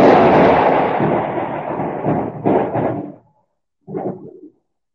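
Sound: thunder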